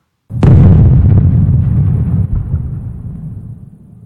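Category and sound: sound effect, explosion sound effect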